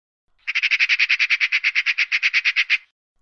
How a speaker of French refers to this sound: Oh, d'ailleurs, j'entends mon ami Pika, la pie, qui revient de son long voyage.